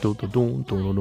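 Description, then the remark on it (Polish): A lone voice imitates the bass line of a sample used in a song, singing a short run of four or five low, sustained syllables with brief gaps between them in a bouncy rhythm. “Tym, utwor, tym samplem, który oni wykorzystują jest głównie ten basik, który słyszycie w tle, taki turu,”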